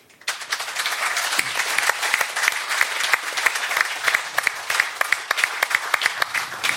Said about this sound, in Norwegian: Vi kan gi han en applaus på tur inn.